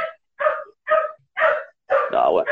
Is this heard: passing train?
no